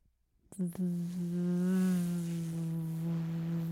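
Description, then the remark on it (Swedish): A voice imitates a buzzing wasp that has got inside, into a living room, with a sustained, steady hum of about three seconds, fairly loud, beginning with a short sharp onset. “och det är ju inte ett bi, inte en humla. Det är en getingjävel som har tagit sig in”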